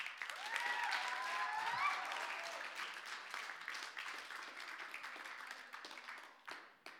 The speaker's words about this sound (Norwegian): Kan jeg få en applaus for den?